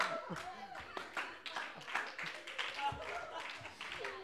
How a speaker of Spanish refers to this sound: ¡Aplausos!